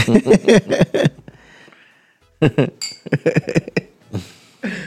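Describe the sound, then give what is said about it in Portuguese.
Glasses clink together in a toast among people drinking, a short bright ring with a faint fading tail, surrounded by lively chatter from several people talking before and after. “Yeah, um brinde.”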